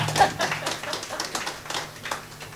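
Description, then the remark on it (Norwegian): An audience at a Norwegian-German event applauds the three panelists, recipients of the Willy Brandt Prize, with a steady patter of overlapping claps at moderate volume, a low hum underneath, and no one speaking. “Så ja, det kan dere også klappe for.”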